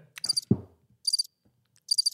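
cricket chirping

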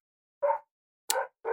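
dogs barking downstairs

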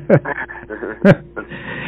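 dog barking

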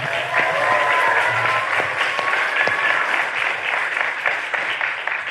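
audience applause

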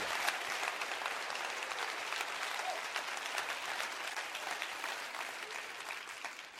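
audience clapping

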